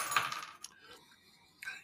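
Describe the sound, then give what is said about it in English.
Keys hit a hard surface with a bright metallic clatter and jingle, followed by a couple of fainter clinks as they settle, with no one talking. “oh, my keys. Oh, man.”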